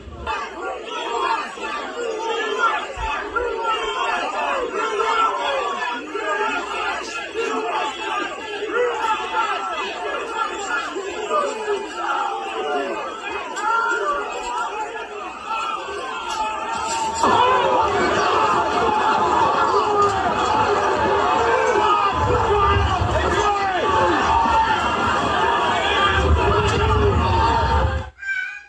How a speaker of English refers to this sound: okay, you get the idea. And there's a lot of screaming that doesn't make for good uh, radio or podcast.